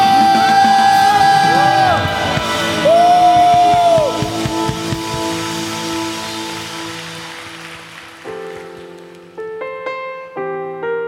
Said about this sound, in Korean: 우리 믿으신 만큼 주님께 영광과 감사의 박수 승리의 함성